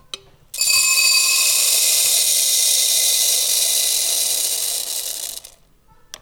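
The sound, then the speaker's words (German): A steady, dense rush of small beluga lentils pours from a bulk-store dispenser tube into a chrome steel bowl as the handle is pulled, for about five seconds, a bright rattling hiss, then tapers off and stops. “Hier schnappen wir ein Chromstahlschüssel, heben es unter die Röhre mit der Beluga-Linse und ziehen am Griff.”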